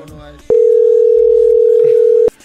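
A steady, loud telephone call tone holds one pure mid-low pitch for nearly two seconds, starting and stopping abruptly, with faint speech audible before and after it.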